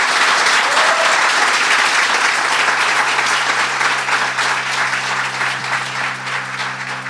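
An audience applauds steadily, a dense wash of many hands clapping at once that stays loud throughout. Toward the end a low, sustained musical tone rises beneath the clapping as it starts to thin slightly.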